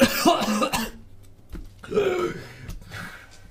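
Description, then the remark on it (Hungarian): A voice acts out a character's coughing fit: a harsh, raspy cough, a brief pause, then a second rougher, throaty hack, fairly loud, with no words spoken. “ő pedig, ő pedig vesz egy mély levegőt gyakorlatilag és ledől róla, kiesik a kezébe és a kristály kicsit arrébb, arrébb, arrébb gurul és, és köhögi.”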